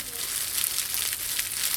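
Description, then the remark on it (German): Dense, steady crackling and crinkling, bright and hissy, a foley imitation of eggs frying in a pan made in a small chamber of an ordinary old-building apartment in Berlin, with small sharper pops scattered through the continuous texture. “Eier in der Pfanne.”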